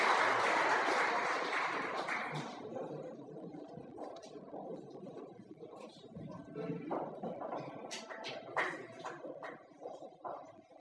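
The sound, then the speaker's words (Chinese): Thunderous audience applause, dense and loud at the start, quickly thinning into scattered claps, a few sharp taps and a low murmur of voices. “响起了雷鸣般的掌声。”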